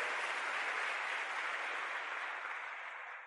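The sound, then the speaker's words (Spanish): An audience claps loudly for the Lord, a dense, steady roar of many hands that holds for a few seconds and eases slightly at the end. No one speaks. “Cuando le da un aplauso fuerte al Señor, ¿está viendo lo eterno con lo temporal?”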